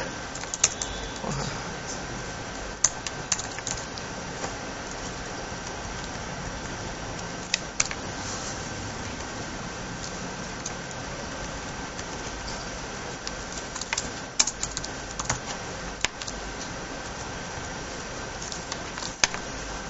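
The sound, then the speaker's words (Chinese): Irregular clicks of typing on a computer keyboard, coming in quick uneven bursts with short pauses, over a steady hiss of background noise. No one speaks. “不是写写错了，你你这电脑这个键盘我不是很习惯。”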